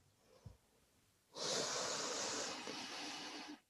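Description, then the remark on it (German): A deep breath in and out, clear, taken as part of a breathing exercise, lasting a couple of seconds as one long, airy rush that seems to pass from inhale into exhale, preceded by a soft low bump. No one speaks. “Und wir atmen jetzt viermal zusammen tief ein und aus.”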